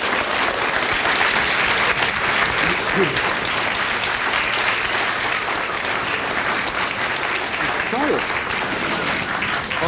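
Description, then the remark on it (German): Water splashes and churns steadily inside a Water Rower rowing machine as someone rows on it, a dense, continuous rushing hiss that stays loud throughout, with a couple of brief, faint voices underneath. “Hören, hören Sie das Planschen? Ja, das ist der Water Rower.”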